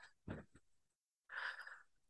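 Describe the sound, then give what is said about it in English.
Heavy breathing right against the microphone: a couple of short, muffled puffs, a brief pause, then a longer, airy hiss of breath, with no talking. “Once again, I'm like breathing in the mic.”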